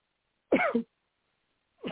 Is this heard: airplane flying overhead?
no